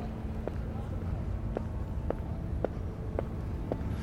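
A small cart rolls away with a steady, rhythmic clack roughly every half second, over a constant low rumble of background noise.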